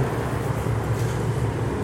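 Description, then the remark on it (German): A diesel bus, not a trolleybus, rumbles in the Neue Mitte area of Oberhausen, its deep, steady engine drone holding at an even level for the whole moment without a clear approach or fade, with no one speaking. “Kommt schon wieder am Bus, ne?”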